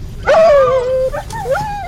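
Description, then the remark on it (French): A search dog whines in a long, high, wavering tone, then breaks into a couple of short yelping whimpers, fairly loud over a low background rumble, during a search by firefighters and police around Guermantes, Seine-et-Marne, France. “Des chiens pour renifler coins et recoins”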